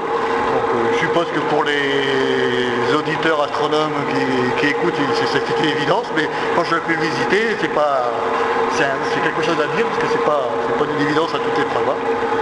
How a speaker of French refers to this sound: Alors on explique aux auditeurs que le bruit que vous entendez, en fait, eh bien, c'est, la, coupole qui tourne sur elle-même.